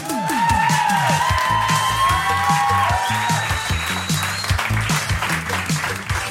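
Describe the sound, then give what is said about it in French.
A large audience at a live event, on a cold night near Christmas, applauds the presenters and jury steadily with cheers and whoops rising over the clapping, dense and loud throughout, with some whistles and shouts standing out near the start. “Je vous demande un tonnerre d'applaudissements pour nos présentateurs et jurys”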